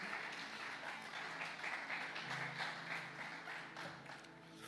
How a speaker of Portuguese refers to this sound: Você pode aplaudir esse nome maravilhoso?